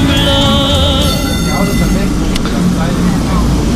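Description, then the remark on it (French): An old yellow tram in Lisbon, Portugal, rumbles along its rails with a loud, high metallic squeal of wheels at first that fades into a steady low rolling drone, with faint voices in the background. “C'est marrant ce vieux tramway jaune là.”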